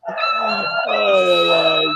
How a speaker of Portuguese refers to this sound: Rapaz, tem um cachorro louco aí, hein? É aqui? Ah, é. É, é aqui, é. do lado do, seu, ah. do seu ah. quarto a porra de um cachorro aqui do vizinho.